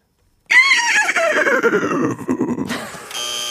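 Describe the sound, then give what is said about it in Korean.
A person imitates a horse's neigh with their voice: a loud, high squeal sliding downward into a rapid fluttering whinny, ending on a strained, sustained note, with no talking around it. “합니다. 말소리.”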